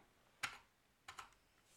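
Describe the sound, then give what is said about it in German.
A few crisp clacks from a modded mechanical keyboard as the Enter key is pressed, one sharp press followed by a pair of quicker clicks, fairly quiet with no talking. “Guck mal, wenn ich jetzt Enter drücke.”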